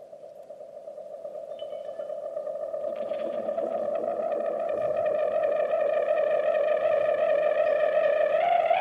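An electric ukulele, sounding like a small electric guitar, plays a song intro, its bright, effects-laden tone held and ringing with echoing overtones, growing steadily louder over several seconds. No voices are heard.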